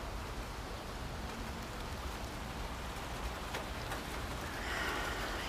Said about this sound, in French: Et avec tout le focus de ton cœur et la pluie qui se met à tomber très fort autour de moi